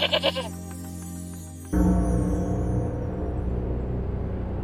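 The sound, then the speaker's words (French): A goat lets out a short, wavering bleat right at the start; then a steady low drone gives way to a loud, rushing outdoor noise that fills the remainder. “Il ne croise jamais personne, évidemment, à part quelques chèvres.”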